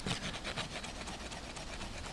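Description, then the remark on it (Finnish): Two wooden sticks are rubbed against each other to imitate the mating call of a capercaillie, making a steady, rhythmic rasping scrape with quick repeated strokes that continue without pause and without any voices. “Kahta keppiä, kun sä hiot vastakkain, sitten tulee vähän niin kuin metson semmoinen soidinääni”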